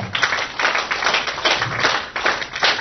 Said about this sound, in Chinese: 来，再给他热烈掌声鼓励一下。